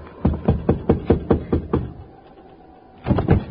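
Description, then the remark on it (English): Someone raps steadily on a wooden door, about seven even knocks, then after a short silence comes another quick burst of knocking. “Go ahead, knock on the door,”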